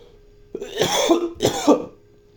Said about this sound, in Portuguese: é aquela tosse seca, cara, que. que meio que coça a garganta.